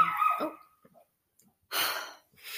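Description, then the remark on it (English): A dog barks at a house during a recording: one sharp, tonal bark, a short quiet pause, then a couple of rougher, breathy bursts. No one speaks. “Lincoln's bark is like.”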